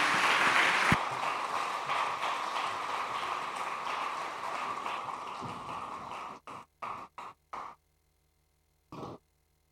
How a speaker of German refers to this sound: Vielen Dank, dass ihr da wart, Kinder. Lass uns den Kindern nochmal einen kräftigen Applaus geben.